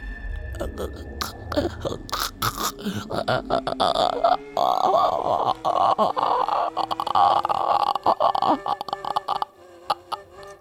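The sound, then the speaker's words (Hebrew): A harsh, gurgling croak from a creature standing motionless in a building corridor, starting with short guttural bursts and then swelling into a long, loud, rasping gargle that lasts several seconds before breaking off into sputters. “הוא עמד שם בלי לזוז כשרצתי על פניו, אבל השמיע צליל גרגור נורא.”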